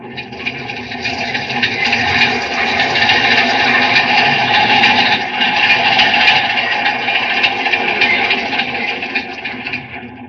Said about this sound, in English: There's one of our metropolitan trains coming into this tunnel.